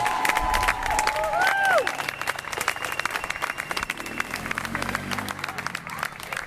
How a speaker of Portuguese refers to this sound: Houve grandes aplausos quando as 26 pessoas entraram. Grandes aplausos de novo quando os ativistas voltaram a sair, não muito tempo depois, foi relativamente rápida esta entrada no campo da justiça.